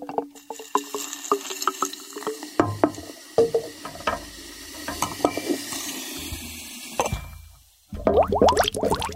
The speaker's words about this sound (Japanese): 学生の時になんとなく聞いた、懐かしの水上置換法によって得られる純粋な泡の音をお聞きください。